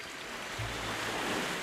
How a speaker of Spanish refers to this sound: Este es el sonido del mar. Los que nos hemos criado en una playa, pues con los ojos cerrados lo detectamos perfectamente, ¿no? El sonido, el sonido del mar.